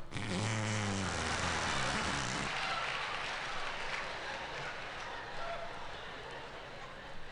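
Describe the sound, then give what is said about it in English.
A wet, buzzing fake fart noise squeezed out by pressing the crook of an arm against skin, lasting about two seconds with a fluttering low rumble, followed by quieter background noise and faint rustling. “There were a lot of ways to make the fart sound when you were a kid me had this one too.”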